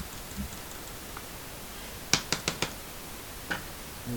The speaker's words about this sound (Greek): Θα μου αφήσει να κάνω κλικ λίγο εγώ γιατί κολλήσει το λάπτοπ.